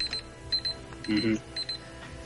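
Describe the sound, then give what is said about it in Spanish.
A brief electronic alarm effect with short bright beeping tones and a louder burst in the middle, playing over a busy background. “Ah, la alarma de la austeridad.”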